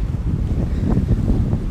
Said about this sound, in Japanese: さあ、はい。ということでね、海です。